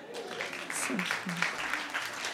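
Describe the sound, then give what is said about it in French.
An audience claps steadily for a couple of seconds, a dense, even patter of many hands, with a few faint voices calling out underneath, as people in the audience who have surfed answer by applause. “Il y a des gens qui ont déjà fait du surf dans la salle, par applaudissement”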